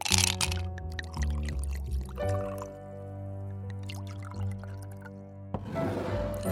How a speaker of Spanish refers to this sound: Saca dos vasos, un poco de hielo y sirve dos tragos de brandy barato.